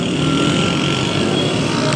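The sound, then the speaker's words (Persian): Steady, dense street traffic rumble on a street in Tehran, Iran, recorded on a phone while walking, with engines droning, including what sounds like a passing motorcycle, filling the whole short stretch at a fairly loud level. “فقط من الان گوشیمو گرفتم جلو دهنم و دارم تو خیابون تهران راه میرم ضبط میکنم اینو برای شما و به شدت میترسم که فقط یه موتور بیاد سر گوشی بگیری بره”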